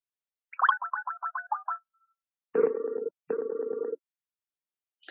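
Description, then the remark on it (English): A quick run of about eight telephone dialing beeps, followed by two longer, buzzy dial-tone bursts with a short gap between them, as a phone call is placed to an interview guest. The tones are clear, with no talking. “let's get … on the phone”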